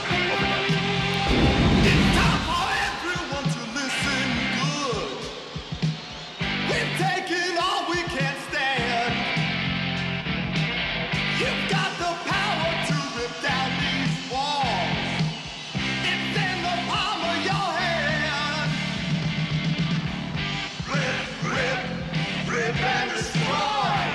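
A loud rock band plays a song live with its lyrics changed to "rip and destroy" to incite a riot in the crowd, with dense distorted guitars, pounding drums and a singer half-shouting over the top, the music running steadily and at full volume from start to finish.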